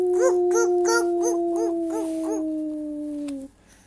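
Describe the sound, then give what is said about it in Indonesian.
A voice imitates a long wolf howl: one sustained, wavering tone that pulses rhythmically, drifts slowly downward in pitch, then cuts off abruptly, leaving near silence. “ikutin suaranya gimana aunya gimana aunya yang panjang banget”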